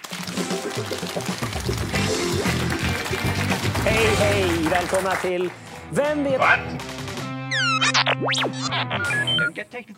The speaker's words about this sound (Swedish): Jag har uppfunnit en, eh, en eh, trivia-lek som heter Vem vet what? Och den har en jingel. Den låter så här.